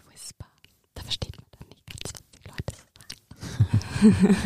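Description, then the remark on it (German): Breathy ASMR whispering with no intelligible words, coming in soft hissing bursts separated by short pauses, then growing louder and more voiced toward the end. “aber auch eben Flüstern oder so komisches Inaudible”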